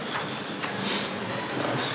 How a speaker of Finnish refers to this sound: Mä vähän pe- pelkään tätä pesukonetta vähemmän.